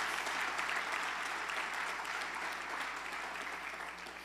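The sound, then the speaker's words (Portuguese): An audience applauds Jesus, a dense wash of many hands clapping at once, loud and sustained before gradually thinning toward the end. No one speaks over it. “Se é para aplaudir, aplauda Jesus.”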